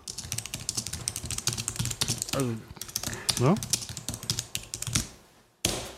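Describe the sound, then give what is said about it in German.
Rapid, irregular clicking of fingers typing on a computer keyboard, fairly loud, running steadily throughout while a voice briefly speaks over it. “tippt sich natürlich, das habe ich ja mitbekommen, aber...”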